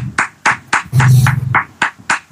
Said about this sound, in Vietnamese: anh em vỗ tay anh em hay quá